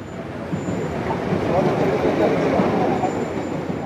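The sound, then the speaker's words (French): Busy city street ambience in Barbès, a district in the 18th arrondissement of northern Paris, France: a steady, dense wash of traffic rumble and engine noise with indistinct crowd voices mixed in, holding at a constant moderate loudness throughout. “Nous sommes à Barbès, un quartier situé au nord de Paris dans le 18e arrondissement.”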